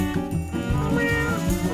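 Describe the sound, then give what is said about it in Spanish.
A cat meows in drawn-out, wavering cries that rise and fall over a couple of seconds, loud, with no one talking. “Me dijo que siguiera maullando por la justicia.”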